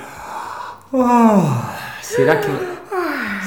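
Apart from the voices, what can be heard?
a person yawning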